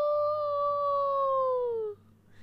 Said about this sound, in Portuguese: Ele está muito triste. Ele passa vários dias em sua casinha e à noite uiva para a lua. Au!